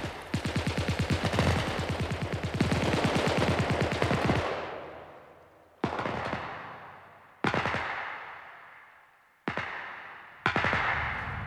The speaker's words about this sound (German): lassen Raketen und Leuchtkugelsignale steigen verständigen sich gegenseitig durch Flaggenhissung und können ein weniger mörderisches, wie dröhnendes Feuer eröffnen, da einzelne dieser Miniaturpanzer 400 Schüsse hintereinander abzugeben vermögen.